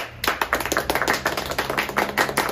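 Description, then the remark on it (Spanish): A live audience applauds: a dense run of many overlapping hand claps that starts abruptly and keeps going steadily at a fairly loud level, with no voices over it. “Ahora sí hay más aplausos ya para la eh, Sí, ahora sí ya tenemos público en vivo.”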